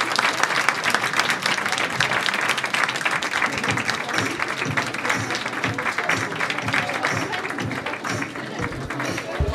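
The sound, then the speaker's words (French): Sustained applause from a crowd at the close of a school fashion show, for the woman in charge of the show, dense and steady clapping at a fairly loud level throughout, with some indistinct voices mixed in underneath. “Voici comment se conclut le défilé, sous les applaudissements euh, pour euh, la responsable euh, qui est chargée de ce défilé.”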